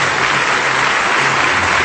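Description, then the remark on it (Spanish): Loud, sustained applause from a large crowd, a dense steady wash of many hands clapping at once with no gaps, rising as an enthusiastic standing ovation after the Camerata de Coahuila orchestra's performance of Beethoven's Seventh Symphony. “Los músicos están felices, se notan sus sonrisas por el aplauso recibido de pie, incluso por una buena parte del público ante esta interpretación”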